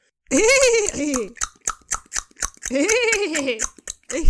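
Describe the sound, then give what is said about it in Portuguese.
A voice imitates a horse: a wavering, whinny-like call, then a quick, even run of about nine tongue clops mimicking hooves, another whinny, and a few more clops. “Como é que fazem os cavalos?”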